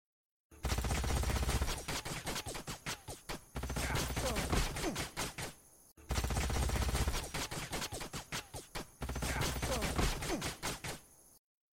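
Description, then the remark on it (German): Rapid bursts of video game infantry gunfire from the game's first battle, dense crackling volleys of shots with brief pauses between, played twice in a row with no one talking. “Als halt der erste Kampf stattgefunden hat, dachte ich, ja, jetzt, jetzt geht's los mit Geballer”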